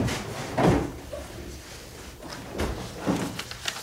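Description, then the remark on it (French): A memory box being opened at a table, with a few separate knocks and scraping rustles of the lid and contents spread over a few seconds, no voices. “Ensemble, on a ouvert la boîte à souvenirs.”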